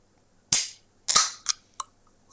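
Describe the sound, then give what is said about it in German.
A drink can cracks open with a sharp pop and a rush of fizzing hiss, followed by a second hissing burst and two small clicks. No one speaks. “Mach die mal auf.”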